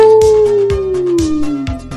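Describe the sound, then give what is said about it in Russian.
A voice imitates a dog's howl: one long, loud, drawn-out wail that slowly slides downward in pitch, with soft regular thumps pulsing underneath. “Что там волки воют? Нет, там, а нет, там собаки ули, кстати, да. Ау!”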